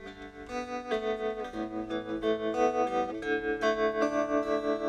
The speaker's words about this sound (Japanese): この音すごい好きなんですよねこれあのトレモロっていうエフェクトでうん、なんていうんですかね、ただ音が、こう、うんと、音量が上がったり下がったりするだけなんですよね。だから、一番エフェクトの中でも単純なエフェクトなんですけども